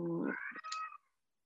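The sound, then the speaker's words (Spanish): A single drawn-out meow from a pet cat during an interview, rising and then falling in pitch with a slightly strained, wavering tone, clear with no other sounds around it. “ay, creo que sonó mi gato.”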